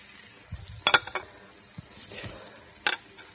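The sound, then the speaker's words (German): Food sizzles on a barbecue grill in a steady, bright hiss, broken by a few sharp clinks and scrapes of utensils, with no voices. “Schau ich jetzt beim Grillen.”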